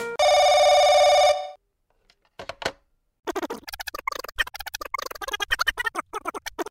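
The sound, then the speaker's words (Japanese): A telephone rings loudly with a steady, buzzy electronic tone for about a second, then stops; after a pause, a person starts talking. The call is an angry one from a photographer whose photo was used without permission. “社長、あの、写真家の方から、私の写真を勝手に使うんじゃないという怒りの電話が来てるんですけど。”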